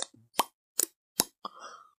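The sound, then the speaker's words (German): Several quick lip pops made by a voice as a vocal warm-up exercise, spaced evenly, followed by a short breathy, hummed tail. Sharp and fairly loud against silence, with no talking. “wenn nötig, ist von Mensch zu Mensch sehr unterschiedlich, die Stimme auch mit so Stimmübungen ein bisschen aufzuwärmen, so ein bisschen summen oder so Ploppgeräusche”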